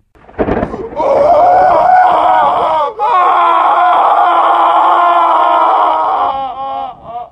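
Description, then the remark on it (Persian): A girl screams loudly, one long piercing cry that breaks briefly for breath and then continues just as strong before trailing off, after a short sharp burst at the start. “با صدای فریاد دختر از جا و مسافر از خواب می جهند صورتها بیدار شده اند و حرکت می کنند چی بود؟”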